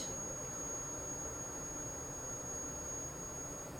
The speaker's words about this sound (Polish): Mleko, jak zapewne słychać, po charakterystycznym szumie zaczyna się gotować.